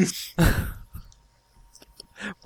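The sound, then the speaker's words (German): Dice are rolled again, rattling and tumbling across a hard surface, a loud clattering burst followed by several quieter scattered clicks as they settle. “Okay, wir würfeln mal neu.”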